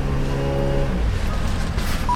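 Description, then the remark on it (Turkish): A car engine hums steadily as the vehicle drives along, a low droning tone giving way to a rougher, continuous rumble of road noise, with a brief faint beep near the end. “Tobias güya konuşulanları duymamak için bütün dikkatini yola vermişti ama bu mümkün değildi.”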